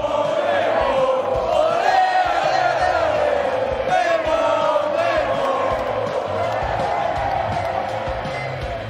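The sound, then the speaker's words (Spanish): A large crowd in Salerno, Italy, cheers goalkeeper Guillermo Ochoa of Salernitana and chants continuously. It is a dense roar of many voices with rising and falling shouted tones, loud and sustained throughout without pause. “En la ciudad medieval de Salerno hay un guerrero al que vitorean.”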